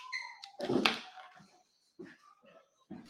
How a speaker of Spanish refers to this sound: Un segundo, va a cerrar aquí la puerta y, ya vuelvo.